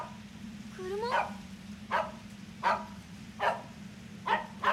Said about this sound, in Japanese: ワゴン車の前で飛び跳ねながら吠えます